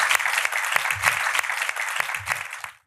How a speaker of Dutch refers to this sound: Mag ik een warm applaus